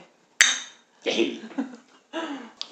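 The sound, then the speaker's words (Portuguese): A single bright, sharp clink of glasses touching in a toast, ringing briefly before fading; voices and laughter follow right after. “então vamos fazer um brinde!”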